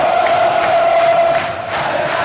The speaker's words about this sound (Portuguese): Está no ar o som das torcidas. Aqui na Central 3.